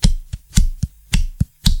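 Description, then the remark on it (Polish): The thin plastic back cover of a Galaxy S3 phone, just removed, being bent back and forth, giving about seven sharp, crackling clicks in a quick, fairly even rhythm, with no talking. “Ale o samym Galaxy S3 muszę powiedzieć, że telefon, a i owszem, dobrze wykonany, jedyna rzecz, jaka może od niego odstraszać, to jego tylna klapka, która, proszę Państwa, o, właśnie ją zdjąłem.”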